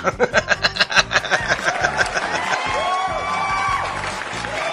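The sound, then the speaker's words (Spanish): A crowd breaks into fast, rhythmic applause mixed with laughter for a couple of seconds, then dissolves into a steady wash of cheering and chuckling voices. “Aplausos, maldita sea.”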